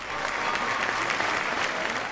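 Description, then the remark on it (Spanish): Steady audience applause fills the whole stretch, a dense, even patter of many hands clapping at once with no pauses, loud and unbroken throughout. “Por fin los aplausos, ¿eh?”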